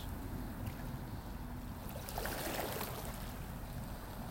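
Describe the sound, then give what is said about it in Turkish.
Sea water washes steadily against the seashore, with one fuller wave surging in about midway before easing back into a soft, continuous lapping hiss. No voices are heard. “Ama dalgalar onlar benimle.”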